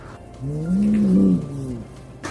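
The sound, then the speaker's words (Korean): A cat at peak tension gives a low, drawn-out defensive growl, one continuous warning tone that swells and wavers for over a second before trailing off, fairly loud with no talking. “역시 제가 많이 듣는 소리 중 하나고요 정말 고양이의 긴장이 최고조로 달했을 때 하악질과 더불어 보이는 굉장히 방어적인 경고음의 일종입니다.”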